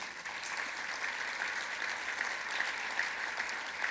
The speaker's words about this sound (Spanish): Si lo crees, dale un aplauso a Jesús.